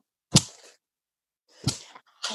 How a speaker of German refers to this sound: Ich habe hier gerade mal das Mikrofon ausgepeitscht, denn in der 10, hört ihr es?